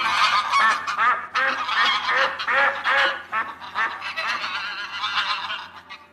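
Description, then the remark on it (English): Wild geese honk in a loud, overlapping chorus, their harsh calls tumbling over one another continuously with no talking. “Some wild ducks and geese come to look at him.”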